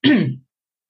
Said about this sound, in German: kurz husten.